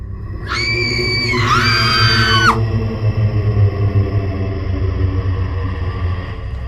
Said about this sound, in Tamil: அதை பார்த்ததும் லாராவும் லாரன்ஸும் பயந்து போய் பயங்கரமாக அலற ஆரம்பிக்கிறாங்க